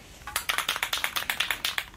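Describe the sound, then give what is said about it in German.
A spray can being shaken, its mixing ball clacking in a quick, steady rhythm of about a dozen sharp, bright rattles over two seconds, with no voices. “du hast ja gerade gesagt, dieses typische Klackern. Guck mal, was ich dabei habe.”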